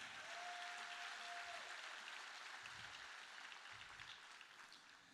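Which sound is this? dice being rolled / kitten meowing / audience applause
audience applause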